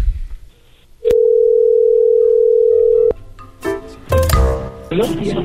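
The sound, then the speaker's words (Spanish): A steady, mid-pitched telephone dial tone on a call to a taxi stand holds for about two seconds, loud and unbroken, followed by clicks and the muffled bustle of a line connecting with faint voices. “Esta es la llamada a un taxi, al sitio”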